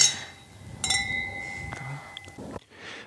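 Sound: wine glasses clinking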